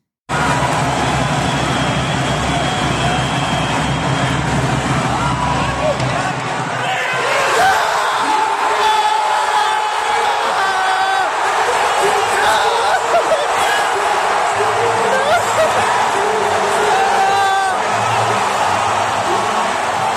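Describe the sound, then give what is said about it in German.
A dense, steady roar of a large crowd at the Rhein derby football game between Rhein Fire and the Cologne Centurions in Cologne, with overlapping voices, shouts and cheers throughout at a loud, constant level, shifting slightly in texture midway. “möchten wir diese Kulisse nochmal erleben.”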